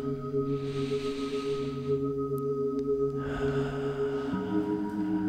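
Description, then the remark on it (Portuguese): A slow, deep breath drawn in through the nose, then let out through the mouth in a longer exhale, taken seated in a comfortable position during a meditation, soft over a steady, calm musical drone. “Vou convidar-te agora a sentar numa posição confortável e vamos respirar fundo pelas narinas para dentro e pela boca para fora, só para começar.”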